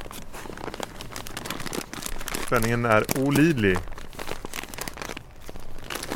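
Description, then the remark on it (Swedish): Steady crinkling and rustling as gaudy gift wrapping paper printed with teddy bears and other animals is torn open from a small package, continuing for several seconds while someone speaks briefly in the middle. “Ska jag öppna den nu alltså eller?”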